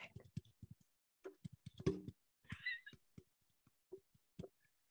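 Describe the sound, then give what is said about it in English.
Quiet, crisp fingertip tapping done as an ASMR trigger, with short taps coming in irregular bursts and brief pauses between them, plus a faint breathy sound partway through. “We're going to do some tapping.”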